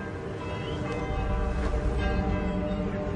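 Church bells ring together in a dense, continuous peal, their overlapping tones blending into a steady, resonant wash that stays loud and even throughout, with no voices.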